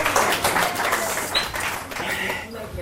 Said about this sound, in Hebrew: קבלו אותו בבקשה במחיאות כפיים סוערות.